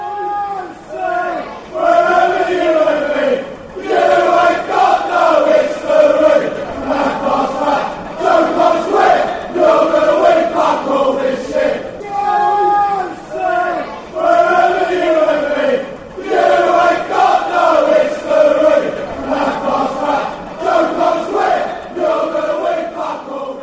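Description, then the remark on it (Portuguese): A large football crowd sings a loud, rhythmic taunting chant in unison against Chelsea, the melody repeating in phrases with brief pauses, filling the stadium continuously. “Então aqui você tem um xingamento contra os Blues.”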